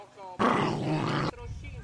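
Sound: dog growling low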